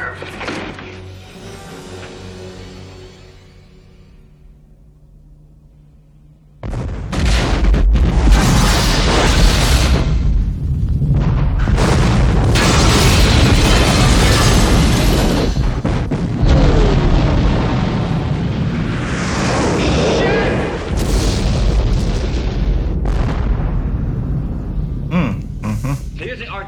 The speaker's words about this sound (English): water tower explosion in Die Hard